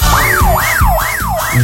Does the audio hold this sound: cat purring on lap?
no